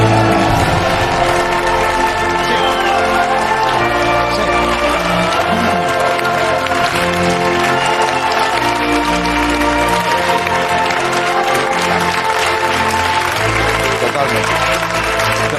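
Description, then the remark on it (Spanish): An audience claps steadily for about fifteen seconds, applause aimed at the Canary Islands public administration, a thick, continuous wash of clapping with cheering voices mixed in, loud and sustained throughout without fading. “O sea, o sea, esto es aplaudir el progreso, sí señor. Este aplauso es para vosotros, amigos de la administración.”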